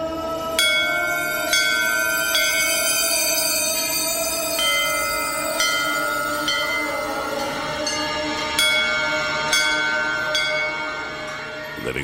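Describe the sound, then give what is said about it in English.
Temple bells at sacred places in India, recorded and mixed by Hildegard Westerkamp, struck again and again, roughly every one to two seconds. Their bright metallic ringing overlaps into a sustained shimmering wash, fairly loud, with no voices clearly audible. “Hildegard Westerkamp recorded and mixed these sounds, chants, and prayers from some of India's most sacred places.”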